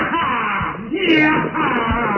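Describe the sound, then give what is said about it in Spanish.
A hunchbacked man holding the reins of a hearse drawn by four black horses on a dusty road to the moors yells and wails wildly, as if possessed, with a loud, strained, continuous cry whose pitch rises and falls over about two seconds, unbroken. “El jorobado Jordi sostenía las riendas mientras gritaba como poseído por el demonio.”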